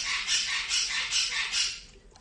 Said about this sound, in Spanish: Ay, el loro.